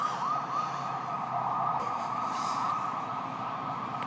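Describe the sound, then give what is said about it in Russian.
An emergency vehicle siren wails steadily outside, its rising and falling tone sustained over a constant background hum, moderately loud, with no one speaking. “О, а вот и сирена долгожданная”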